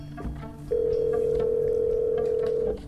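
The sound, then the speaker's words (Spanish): A steady, continuous telephone tone sounds for about two seconds, loud, on a line dialed to a mobile phone number that nobody answers, with a faint low background hum underneath and no voices. “Durante todo el viaje a Chile marco decenas de veces los dos números celulares”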